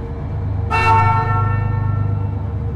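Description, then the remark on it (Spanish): A car horn gives one sustained honk lasting about two seconds, loud, over a steady low engine rumble with no talking, sounded at someone at the entrance as the car drives out of a garage. “Va a haber alguien en la entrada, tocarle bocina como si lo conociéramos.”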